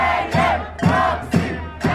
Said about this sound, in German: Andere Demonstrierende halten Bilder hoch, auf denen Opfer von Polizeigewalt zu sehen sind, trommeln auf Töpfe und fordern in spanischen und türkischen Sprechchören immer wieder den Rücktritt des türkischen Ministerpräsidenten